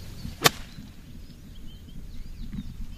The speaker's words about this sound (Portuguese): Neste momento tem a possibilidade de dar um birdie, menos uma pancada em relação ao par. É o meu objetivo a é dar birdie agora. Escutai, assim sendo, uma tacada para birdie.